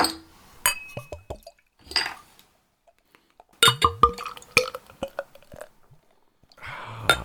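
Beer pours into a glass with gurgling, sloshing bursts, sharp glassy clinks and bright ringing taps, then settles into a soft steady fizz of foam at the end as it foams strongly into a head.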